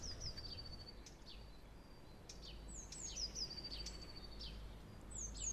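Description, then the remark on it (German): Birds sing outdoors in a garden in a steady stream of high, thin chirps and short trills from several directions. The calls are fairly soft, over a low rumble of wind. “Aber heute sind die Vögel lauter und der Wind.”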